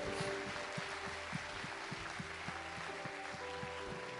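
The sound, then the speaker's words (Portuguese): A church audience claps steadily for the Lord over sustained background music, the many hands blending into a dense wash with a few sharper, rhythmic hits standing out. “Uma salva de palmas para o Senhor, glorifica o Senhor.”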